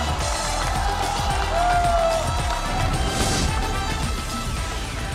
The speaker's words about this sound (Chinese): 亲爱的朋友们，让我们再次把我们最热烈的掌声送给我们的四位明星导师，欢迎他们！